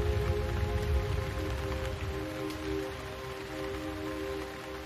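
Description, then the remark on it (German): Steady rain patters on the leaves of trees in a soft, continuous wash, with a low constant hum underneath and no voices. “Kehre nun zurück zu der kleinen Überdachung auf dem Hügel, wo der Regen auf die Blätter der Bäume fällt und die Tropfen sich an die Grashalme klammern.”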